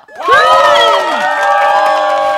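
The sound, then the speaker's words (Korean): A crowd cheers at someone doing a headstand, erupting in loud, sustained cheering, with many high-pitched voices whooping and shouting together, starting abruptly and holding steady for a couple of seconds. “사람들이 환호할 때 저는 희열을 느꼈어요.”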